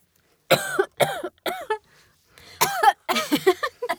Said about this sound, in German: kriegt nur Hustenkrampf. ja, das befreit vor allem Schleim.